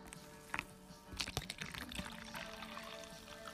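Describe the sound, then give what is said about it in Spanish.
Water pours from a jug into a glass, a short burbling splash followed by a steady trickling fill with bright glugging spikes, fairly quiet, with no one talking. “Exactamente, es agua. Agüita de la jarra al vaso.”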